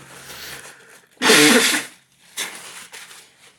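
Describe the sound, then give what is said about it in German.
Someone blows their nose: one loud, harsh, hissing blast lasting about half a second, then two shorter and softer snorting puffs, with no talking. “Dass mal eben die Nase putzen.”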